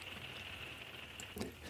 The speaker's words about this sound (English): And right now, the enemy of this podcast is the rain outside. You can probably hear it in the background. But this one is very welcomed because we are actually right now camped right on the shores of Grand Lake of the Cherokees in northeast Oklahoma,